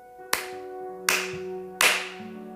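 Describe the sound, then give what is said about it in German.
Three sharp hand claps ring out alone, spaced roughly three-quarters of a second apart, each with a bright crack and a short lingering ring against a faint tonal background. “Lohnt uns dreimal zusammen in die Hände klatschen.”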